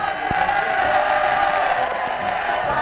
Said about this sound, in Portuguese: A torcida do Fluminense aplaude a taça Globo, Rádio Globo, TV Globo. Quando os geraldinos aplaudem, gritam: Vamos lá, minha gente, vamos festejar, é, minha gente.